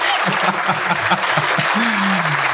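Steady applause fills the whole stretch, a dense, hissy wash of many hands clapping, with a low pulsing tone underneath and a short sliding low note near the end.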